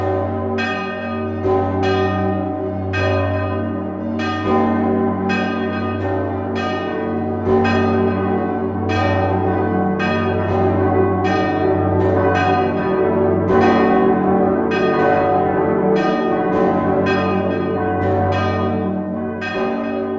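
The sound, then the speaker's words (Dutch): The large bells of the cathedral and of the belfry (Belfort) peal together in a dense, overlapping wash, with repeated clangs striking every second or so over a deep, sustained hum. Loud and continuous for the whole stretch, with no voices. “die grote klokken, tezamen. Nu, hoort, als je onder de kathedraal bent, hoorde die van de kathedraal”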